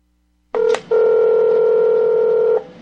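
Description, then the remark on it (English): Telephone keypad tones of a phone call to Governor Mark Gordon's office: a brief electronic beep, a short pause, then a longer steady tone held for almost two seconds, loud with no talking. “Oh, this cut's cool. Phone call.”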